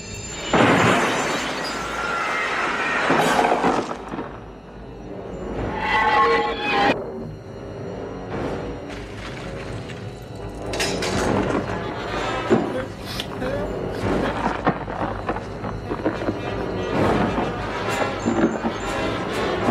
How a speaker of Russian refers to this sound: Его появление заставляет композитора включить абсолютно хермановские диссонирующие струнные, как в «Психо» Хичкока, и на их фоне вспышки, можно даже сказать, выстрелы духовых.